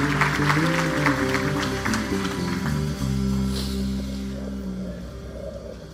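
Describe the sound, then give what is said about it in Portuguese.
A crowd claps together in loud, dense applause for Jesus after a prayer, over sustained organ-like keyboard chords, the clapping gradually thinning and fading while the low chords continue. “Dê um forte aplauso a Jesus.”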